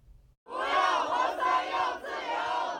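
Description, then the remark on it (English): A large crowd of protesters in Beijing, China, demonstrating against zero-COVID lockdowns, chants 'No PCR tests. We want freedom' in unison, loud and sustained, with voices rising and falling in rhythmic phrases and a brief dip before the chant resumes. “That's what these protesters in Beijing are chanting after having enough of the Chinese Communist Party zero COVID lockdown policies.”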